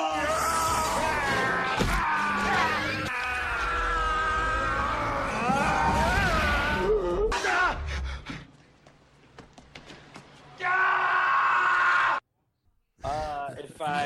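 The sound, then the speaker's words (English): A montage of Arnold Schwarzenegger's loud screams and bellows, spliced into rapid abrupt cuts, with strained, wavering yells and short silent gaps between the final bursts. “If I uh, really, really hated this movie, thought it was the worst thing in the world, much like Project Power, I give it the Arnold Schwarzenegger scream montage.”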